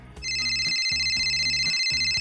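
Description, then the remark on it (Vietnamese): A telephone rings with a steady, bright electronic trill, high tones held continuously over a pulsing lower pattern that repeats about every half second. No one speaks. “Ngay bây giờ thì hãy khám phá điều bí ẩn đấy sau khi tiếng chuông quen thuộc vang lên nhé.”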